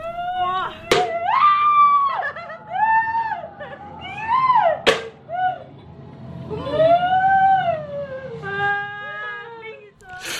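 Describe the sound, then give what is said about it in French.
High-pitched screams and whimpering cries of two young women rise and fall in repeated bursts inside a horror maze styled as an abandoned psychiatric hospital, punctuated by two sharp bangs, with a low rumbling murmur of zombie growls running underneath. “pénombre au fil d'étroits couloirs de ce qui ressemble à un hôpital psychiatrique désaffecté et de vrais zombies s'animent subitement, nous frôlent et grognent au creux de notre oreille pendant le parcours.”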